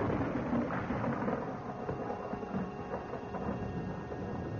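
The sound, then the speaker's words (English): Thunder before a coming storm: a steady, heavy rumble rolls on without a break, dense and low with a hissing, rain-like wash layered on top. No voices are present. “There's going to be a storm.”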